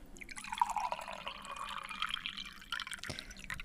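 Close-up water trickling and pouring steadily, with bright splashy droplets and occasional distinct drips over a continuous liquid gurgle, like a small stream or running tap; no voices.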